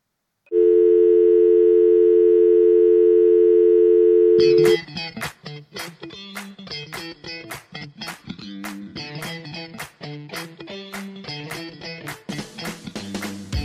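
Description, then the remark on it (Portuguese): A loud, steady telephone busy tone after the caller hangs up drones for about four seconds, then cuts off abruptly as rhythmic music with sharp percussive hits starts up. “Já vou desligar que eu tô com pressa.”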